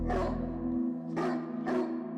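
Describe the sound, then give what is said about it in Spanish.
A dog barks three times, loud, full-throated woofs with short pauses between them, the second and third coming closer together, at half past two in the morning as someone knocks on the glass pane of a house's front door. No one speaks. “El perro empieza a ladrar y su mujer le llama para decirle que hay alguien en la puerta.”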